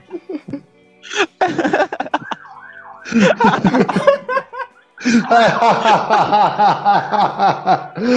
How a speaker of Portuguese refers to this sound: Mano, a Sirene tá aqui, é, é a polícia, cara.